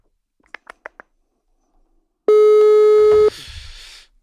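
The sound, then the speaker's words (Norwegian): A few quick clicks, then a single steady one-second ringback tone on an outgoing phone call, loud, followed by a short burst of line noise. “Rett på. Ringinga.”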